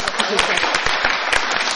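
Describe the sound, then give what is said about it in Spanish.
A university audience applauding two of its professors, a biologist and a geographer. Many hands clap steadily together in a dense, continuous wash of sharp claps that holds at a fairly loud level from start to finish. “Un aplauso.”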